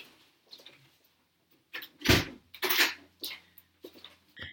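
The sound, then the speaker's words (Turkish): A room door swings shut with a solid thump, followed by a short series of clicks and rattles as the lock is turned, without any talking. “Ben kilitliyorum kapıyı.”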